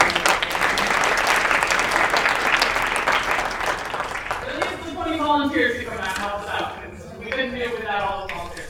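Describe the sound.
A round of applause from an audience for the organizer of the event, dense steady clapping for about four seconds that thins out, followed by people talking and laughing as the clapping fades.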